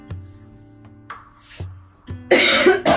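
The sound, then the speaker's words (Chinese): A series of throaty coughs from a reader about to read aloud Lu Xun's story Kong Yiji, three or four short bursts at uneven intervals, ending in a louder, harsh, breathy cough fit. No one speaks. “我这个咳嗽没办法控制。”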